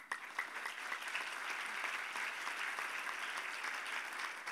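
An audience at Gereja Kemenangan Iman church applauds steadily, a dense wash of many hands clapping at once that holds at an even, fairly loud level throughout without any voices standing out.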